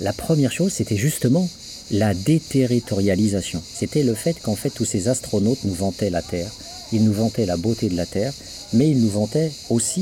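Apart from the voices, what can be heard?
cricket chirping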